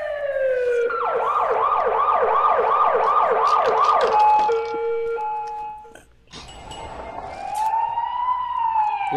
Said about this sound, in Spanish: Bueno, vamos a la sirena entonces. Eh, claro, eh, Con lo del Chucky Lozano, ¿eh? Vamos a ir a la sirena con lo del Chucky Lozano. Sirena.